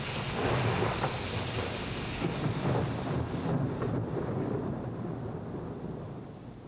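A heavy thunderstorm downpour: dense, steady roaring rain with deep rumbling thunder rolling underneath, loud throughout and easing slightly toward the end. No voices.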